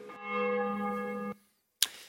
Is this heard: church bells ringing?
yes